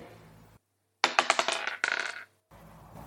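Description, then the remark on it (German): Dice are rolled in a quiz game to pick a question topic, rattling and clattering across a hard surface in a quick burst of sharp clicks lasting about a second, fairly loud, with quiet before and after. “Ich stelle dir drei Fragen aus sechs Themengebieten und du darfst jetzt dreimal würfeln.”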